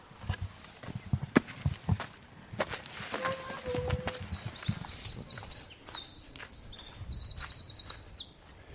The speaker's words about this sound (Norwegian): Det er vært i lufta, ja. Fugler og kvitringer.